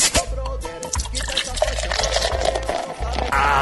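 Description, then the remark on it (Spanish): A caguama, a large bottle of beer, is opened with a bottle opener and poured, the liquid gurgling and splashing steadily for several seconds, with a low rumble and faint voices in the background. “pásame el destapador.”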